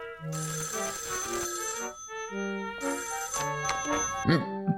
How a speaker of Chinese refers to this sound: 当下副连长拿起了电话，直拨车机厂办公室。 哎，这么晚还有电话来啊？